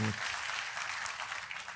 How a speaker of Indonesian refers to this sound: Sekali lagi kita kasih tepuk tangan yang meriah buat Tuhan.